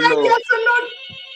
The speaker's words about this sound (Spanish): Ya sonó el teléfono, plebe, capaz que